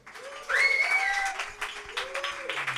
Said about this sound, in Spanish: Un aplauso.